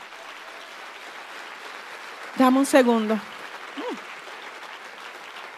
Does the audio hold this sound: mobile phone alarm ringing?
no